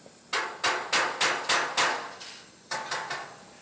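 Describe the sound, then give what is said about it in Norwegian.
Metal hammering in a workshop in Amada that makes stainless steel pipes and containers for the town's fishing industry, in a steady rhythm: six sharp, ringing blows, a short pause, then three more, each strike bright and clanging with a brief metallic decay. No voices. “Dette verkstedet har spesialisert seg på rør og beholdere i rustfritt stål, til bruk for byens fiskeindustri.”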